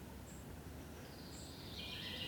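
bird, birdsong outdoors

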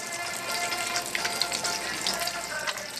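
food or drink, cooking

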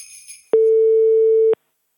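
signal or alarm, telephone ringing tone

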